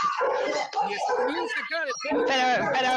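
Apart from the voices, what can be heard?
dog barking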